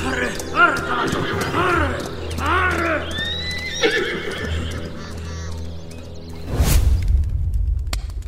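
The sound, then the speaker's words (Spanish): A horse neighs and whinnies repeatedly, its quavering calls rising and falling, while hooves clop steadily beneath, followed by a brief loud rustling burst near the end. “Coloqué el cadáver de Barnabás sobre mi propio caballo. Lo llevé a un escondite seguro en el bosque”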